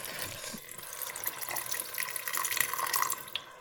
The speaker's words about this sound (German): Aber ich gebe noch ein bisschen Wasser hinzu, glaube ich, weil es muss noch ein bisschen matschiger werden.